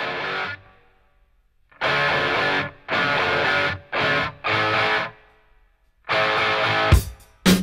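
A loud, distorted electric guitar riff in a hard rock style hammers out chunky chords in stop-start bursts, with short silent gaps between them and no voices.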